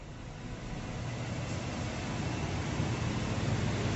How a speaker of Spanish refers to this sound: El coche se detiene en la entrada de un bar.